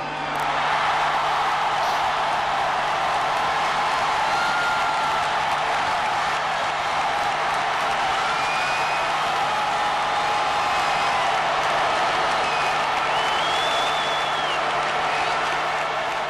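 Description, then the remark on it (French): A huge crowd in the nearly full Santiago Bernabéu stadium in Madrid cheers and applauds as Florentino Pérez presents Cristiano Ronaldo on 6 June 2009, a steady, loud roar holding for the whole stretch, with scattered high whistles rising over the dense wash of clapping and shouting. “Le 6 juin 2009, quand Cristiano Ronaldo est présenté par Florentino Pérez lors de son arrivée à Madrid dans un Santiago Bernabéu quasi plein”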